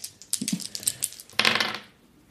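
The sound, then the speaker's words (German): Dice, including a hundred-sided die (W100) rolled for a character's weight, clatter and tumble across a hard table in a quick burst of small clicking impacts, ending in a brighter rattle that settles and fades; fairly loud, no voices. “So, dann würfelst du nochmal mit einem W100 für dein Gewicht.”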